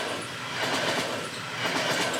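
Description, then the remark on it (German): A train rumbles past with a broad, steady roar and faint rhythmic clatter of wheels, swelling slightly as it goes by, with no voices present. “das ist der Zug. Hört man den auf der Aufnahme?”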